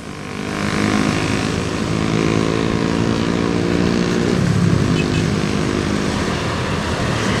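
Motorcycle engines on the Jalan Raya Bogor road drone steadily from below, a loud continuous rumble of several machines that swells slightly midway as they pass, with no voices.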